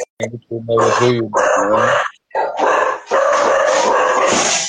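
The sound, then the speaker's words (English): Dogs howl loudly in long wavering cries, then break into a rapid stretch of excited barking that runs continuously to the end. “My bad, My, my dogs out here acting crazy.”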